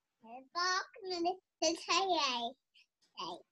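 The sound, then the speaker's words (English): A young child imitates a chicken, with several squawky, warbling vocal bursts that rise and fall in pitch, separated by short pauses and ending in a brief final squawk. “Hey Hey is the chicken from Moana.”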